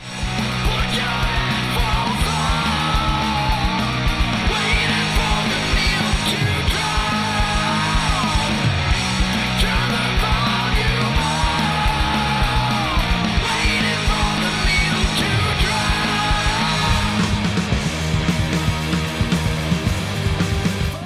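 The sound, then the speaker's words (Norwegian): A raw, rattly punk recording blares at a steady loud level throughout, with distorted guitars, thrashing drums and shouted vocals blurred together in a noisy, lo-fi mix. “Det, ja, skrangel og øs, det er en eh, greie med deg.”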